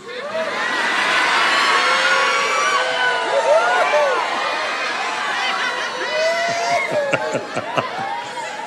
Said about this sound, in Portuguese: Como é que grita alegria? Vocês podem mostrar aí como é que grita alegria?